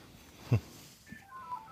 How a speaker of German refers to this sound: Musst du ans Telefon?